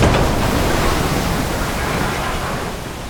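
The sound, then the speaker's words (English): A loud, dense roar of ocean water churning and crashing, like a huge wave breaking, sustained throughout and easing off slightly at the end. No voices. “It's it's basically this massive wave, this wall of water that it has to be at least twice the size of surrounding waves, and they just sort of pop up out of nowhere and absolutely smash into ships.”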